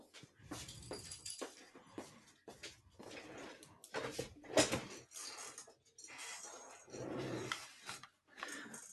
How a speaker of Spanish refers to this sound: Mm, me das un minuto que está la perra ahí ladrando, no sé qué.